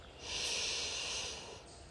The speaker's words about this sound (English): Let's just continue to take deep breaths for the next minute, centering ourselves, taking in all that we need, releasing what we don't need. Just let it happen organically. Breathing in through the nose